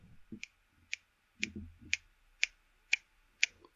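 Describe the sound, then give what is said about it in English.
A metronome app on an Alexa smart speaker ticks steadily at 120 beats per minute, about two crisp clicks each second, clear, with a few soft low thumps and rustles underneath. “Playing 120 beats per minute.”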